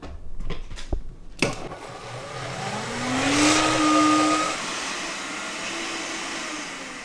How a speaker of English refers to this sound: I'm gonna go ahead and blend this now